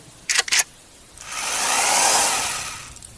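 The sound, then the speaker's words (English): A cordless drill running on 25-year-old batteries gives two quick, sharp bursts, then spins up into a longer steady whir that swells and fades over a couple of seconds, fairly loud with no voices. “It's a sweet drill I found. This fucker's 25 year old batteries are still kicking.”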